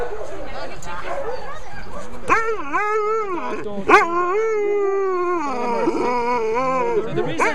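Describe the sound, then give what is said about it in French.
Several chained sled dogs at a sled-dog tourism operation howl and yelp together in a loud, overlapping chorus, with sharp barks breaking through the long wavering howls throughout. “On y trouve des sociétés spécialisées qui gèrent par exemple l'activité de chien de traîneau.”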